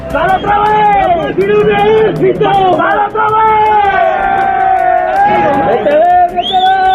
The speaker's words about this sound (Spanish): estos gritos, estos vítores que se oyeron el viernes por la noche jaleando entre risas a los ocupantes de esa planeadora.